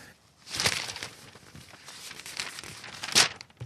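Newspaper pages rustle and crinkle as they're leafed through, with a couple of louder crisp turns standing out against soft paper handling, close by and with no talking.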